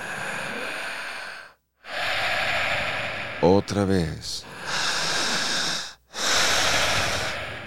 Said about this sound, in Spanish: Quienes están observando el podcast, sigan respirando. Fuerte. Igual que …. Fuerte, ….